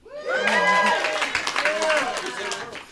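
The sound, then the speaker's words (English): A crowd cheers and applauds for about three seconds, with steady clapping noise and several raised voices whooping and shouting over it at a fairly loud, even level. “Y'all can cheer for him too.”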